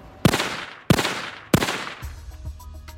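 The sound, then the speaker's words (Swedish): Three loud gunshots ring out about half a second apart inside a concrete garage, each leaving a long, hard echo bouncing between the concrete walls, followed by faint rumbling and clatter. “Det skarpa ljudet studsar mellan betongväggarna och där får man aldrig riktigt reda på vad som har hänt.”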